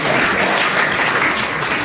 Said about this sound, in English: The audience, recognizing brilliant play when they see it, bursts into spontaneous applause.